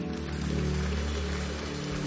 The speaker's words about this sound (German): Lasst uns Jesus mal einen Applaus geben.